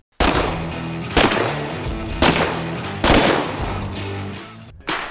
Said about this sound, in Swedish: Så att Tim Ryan gjorde en ad som handlade om vapen och eh, han står då på en skjutbana och skjuter prick och eh, den låter så här.